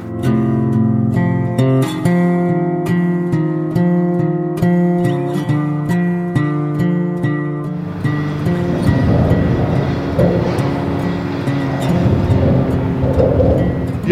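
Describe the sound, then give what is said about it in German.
Traffic roar from the Autobahn 45 in Germany, heard while walking underneath it through a wildlife park: a steady hum of engines and tyres that swells into a loud, rushing wash of noise partway through and stays heavy to the end. No one speaks. “und mitten durch den Wildpark geht wieder die Autobahn 45, wo wir gerade drunter durchgehen.”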